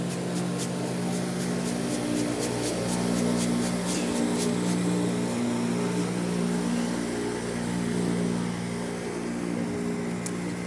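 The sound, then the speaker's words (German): The engine of a motorboat approaching on a lake drones steadily with a low, throbbing hum that stays fairly loud throughout, joined early on by a run of faint regular ticks; nobody speaks. “Und ah, da kommt ein Boot.”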